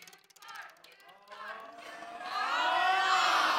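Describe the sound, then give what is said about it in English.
A prize wheel spins with a rapid run of sharp ratcheting clicks, then voices of a crowd swell into loud cheering as it lands close to the 25 slot, drowning out the clicking. “All right, go ahead and. Spin that wheel.”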